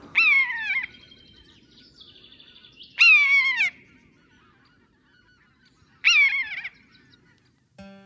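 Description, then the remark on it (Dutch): A common buzzard calls three times, each a loud, mewing cry that slides downward, spaced about three seconds apart, with a fainter call in between and no talking. “Nou, dan gaan we nu nog even één keer luisteren naar het, eh, naar het geluid van de buizerd.”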